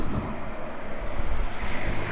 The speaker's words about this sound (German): Ja, da kommt auch eine 146 mit 1, 2, 3, 4, 5, 6 Doppelstockwagen.